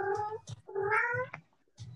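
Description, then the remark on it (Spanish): A cat lets out two long, drawn-out angry yowls, rising and wavering in pitch, with short breathy bursts between them and a brief huff at the end. “Hasta, hasta, el, gato se enojó.”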